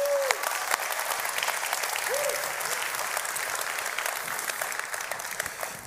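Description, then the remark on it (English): A large church audience, just after a prayer, breaks into sustained, dense applause that holds steady for several seconds, with a couple of brief whoops rising above the clapping. “Can we just make some noise? Because I guarantee you someone just prayed that.”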